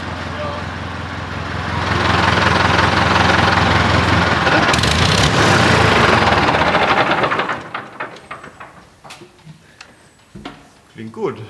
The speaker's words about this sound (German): Ja, also der hat einen schönen kernigen Motor, ordentlich Hubraum und hat 2 PS mehr als der Fendt. Also der hat, der hat 67 PS hier da und der Fendt hat 65, meine ich.